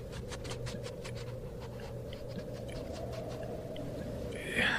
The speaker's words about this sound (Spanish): Se escuchaba como un perro. Un perrito se escuchaba del otro lado de la puerta.